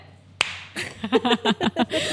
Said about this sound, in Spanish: Le vamos a dar un aplauso a Daniel Matamala. Se merece una estrella. Un aplauso. Démosle un aplauso. Un, dos, tres.